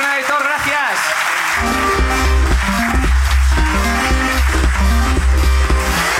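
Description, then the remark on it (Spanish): A crowd applauds steadily for a participant who has signed up to come up on stage, a dense wash of clapping, while a voice is heard at the start and a loud, bass-heavy music bed kicks in after about a second and a half. “Aplauso para”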